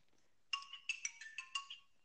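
A short electronic notification jingle of about five quick bright chime tones in a rising-and-falling pattern, clear, lasting around one and a half seconds with no talking.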